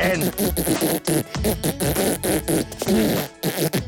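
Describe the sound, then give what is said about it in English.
A long, loud, wet-sounding fart, sputtering and crackling in rapid bursts with a few brief breaks, with no one talking over it. “Did you just soil yourself? It did sound a little wet, didn't it?”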